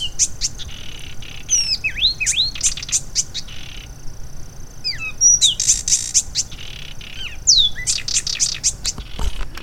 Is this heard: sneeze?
no